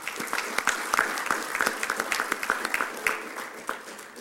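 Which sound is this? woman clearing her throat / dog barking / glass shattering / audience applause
audience applause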